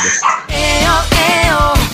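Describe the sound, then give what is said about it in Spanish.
A female dog barks in two drawn-out, wavering vocal bursts, loud, with a brief pause between them and no clear talking. “Eh, hoy toca con perra y sin invitado.”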